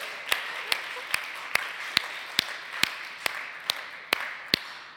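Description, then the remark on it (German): Steady rhythmic clapping, about eleven sharp claps at an even beat, over a continuous hiss of crowd noise, as an audience applauds for the people watching by livestream. No one speaks. “Hey, lasst uns doch mal allen richtigen Applaus geben, die da per Livestream zuschauen, oder?”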